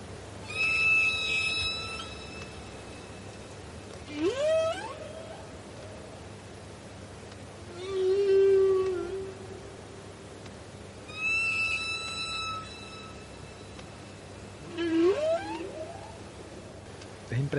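Whales sing in the ocean: a series of long, rising and falling moans and whistling tones repeat every few seconds, with harmonic overtones and a lingering echo from the ocean channel where they sing, over a low rumbling background.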